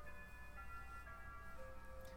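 A grandfather clock chimes softly on the half hour, its bell tones ringing and overlapping as they fade slowly, with another note sounding near the end. The chimes are faint, with no talking.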